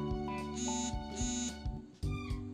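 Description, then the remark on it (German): A smartwatch notification chime beeps repeatedly in loud, short electronic bursts, with bright tonal pulses recurring roughly every half second to a second, no voices present. “Ich glaube, den hört man jetzt, aber und das ist das Bimmelimmelim von meiner Uhr.”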